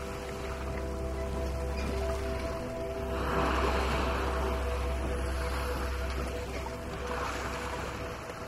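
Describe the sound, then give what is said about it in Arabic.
Sea waves wash onto the shore with a broad hissing surge that swells and fades, rising most strongly midway and again near the end, over a steady low rumble and a faint sustained hum. “واقفين بين الشجر الكثيف عم يراقبوا شط البحر كل يوم بيجي الموج فاضي لمئات لآلاف السنين ما بيحمل معه غير الزبد ولمعة سطح البحر من الشمس الدافية يلي بتضرب هالمنطقة الساحرة من العالم”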